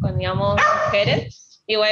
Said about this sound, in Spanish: perdón los ladridos.